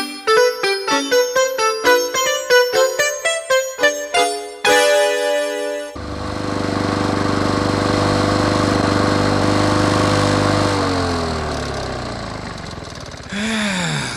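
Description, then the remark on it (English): After a few seconds of quick, rhythmic tonal notes, a lawn mower engine drones loudly and steadily, then its pitch drops as it winds down. No one speaks. “be sure to pick up anything the mower might catch and throw.”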